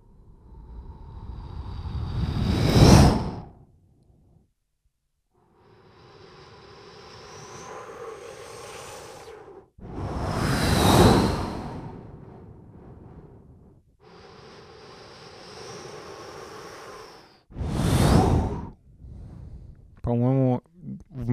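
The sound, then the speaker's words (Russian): A person imitates ocean surf with their mouth: three loud breathy whooshes swell and fade, separated by softer hissing, ending with a brief voiced sound. “мне в наушниках кажется, что идеально похоже на шум моря.”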